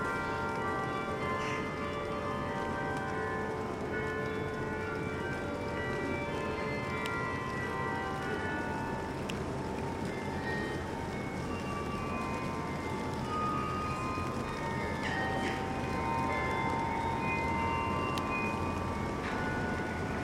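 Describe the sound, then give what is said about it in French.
Carillon bells in Forcalquier play a slow melody in a slight wind, their overlapping tones ringing and sustaining into one another at a steady, moderate loudness, with no voices present. “écouter le son des troupeaux, explorer les carillons”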